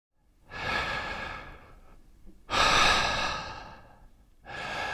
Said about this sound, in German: Tief Luft holen. Denn durch die Luft kommt die Energie in den Körper.